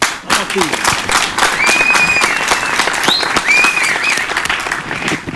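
Loud, sustained applause from an audience welcoming an urban music artist, dense overlapping claps filling the whole stretch, with a few whistles and cheers rising above the clapping.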